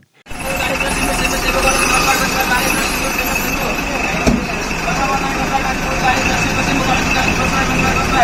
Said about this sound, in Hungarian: De ez általában így hangzik, mikor beáll egy busz a megállóba.